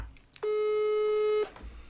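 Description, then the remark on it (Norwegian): A single steady telephone ringing tone as a phone call is being placed, a flat electronic hum lasting about a second, clear and loud against faint background noise, with no one speaking. “jeg ringer opp til, jeg ringer opp til Andy”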